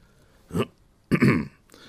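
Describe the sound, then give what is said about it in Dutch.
A polite clearing of the throat by the butler Jeeves, in two parts: a short gruff burst, then a longer rasping one a moment later, with no talking around it. “Jeeves kuchte.”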